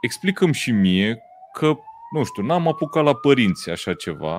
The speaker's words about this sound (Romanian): În primul rând, nu știu dacă se aude salvarea de aici, de pe fundal. Dacă nu se aude, înseamnă că microfonul ăsta e top.